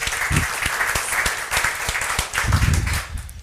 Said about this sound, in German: Gib einen Applaus Neustadt.